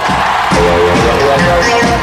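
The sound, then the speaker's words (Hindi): Loud, steady applause from a crowd for about two seconds, welcoming a guest on the Fever FM show Picture Pandey, a dense wash of clapping with some cheering mixed in and faint tonal sounds underneath. “और अब जोरदार तालियों से स्वागत कीजिए”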